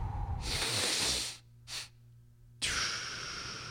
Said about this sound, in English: Specifically, they do say the first big breath is in through your nose, and then tiny pause, and then another little one through your nose yeah. And then a long one through your mouth. So it sounds a little like this.